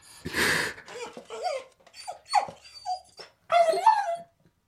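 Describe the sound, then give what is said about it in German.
An old, dying dog whimpers and whines in a series of weak, wavering cries as it lies down at someone's feet, with a breathy huff at the start and a final drawn-out whine fading out as it dies. Fairly quiet, no talking. “Er legt sich zu meinen Füßen nieder wie zum Schlafen, winselt und ist tot.”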